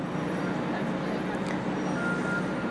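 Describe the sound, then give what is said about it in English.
A bus rumbles by in a park, its low engine drone and road noise forming a steady, fairly loud wash with no quiet gaps over a few seconds. “Let's just say a lot of buses have passed by”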